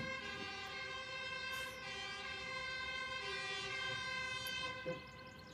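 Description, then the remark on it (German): A fire engine siren passing outside blares loudly and continuously, a steady, buzzy tone rich in overtones that holds nearly level for the whole stretch, with no one speaking over it. “Sekunde, die Feuerwehr.”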